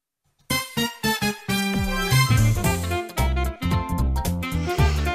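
Bright, bouncy instrumental music with a video game feel starts after a brief silence, opening with punchy staccato hits before settling into a lively, full-band melody. No one speaks over it.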